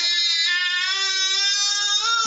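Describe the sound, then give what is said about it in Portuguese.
A baby lets out one long, unbroken wail, loud, holding a steady pitch with a slight upward strain at the very end. “Tenho aqui um bebê para leiloar, se alguém quiser.”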